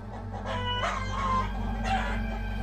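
A rooster crows in two drawn-out, strained calls over a steady low hum, moderately loud, with no talking.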